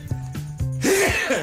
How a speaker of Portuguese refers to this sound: Acho, vou espirrar, atenção.